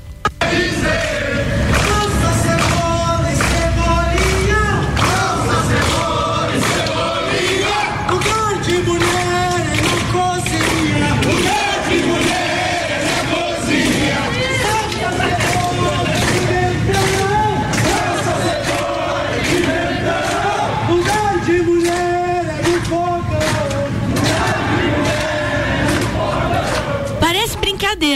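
At night, a group of about fifty people, most without masks, run like an army platoon while chanting loudly in unison, their rhythmic shouted cadence steady and continuous for the whole stretch, like a marching drill call.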